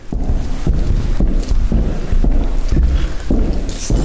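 Quick, heavy footsteps of actors pound along a long theatre corridor toward the stairs at a steady running pace, about two strides a second, loud over a constant low rumble, with no voices.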